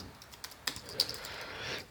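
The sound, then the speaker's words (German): A short burst of computer keyboard typing as a password is entered: several quick, irregular key clicks, fairly quiet, with no talking over them. “Äh, man muss auch tippen.”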